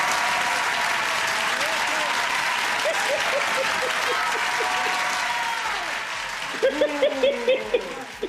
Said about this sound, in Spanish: Los que quieran que se le renueve el contrato a Natalie Yaresco, que aplaudan.